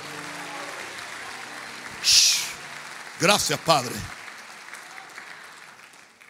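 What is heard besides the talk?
audience applauding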